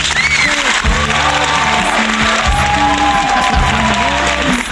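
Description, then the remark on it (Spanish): Loud, sustained applause from a crowd welcoming a guest fills the whole stretch, dense and steady with a few scattered cheers mixed in, and no one speaking over it. “y a quien la recibimos con un fortísimo aplauso, ¿vale?”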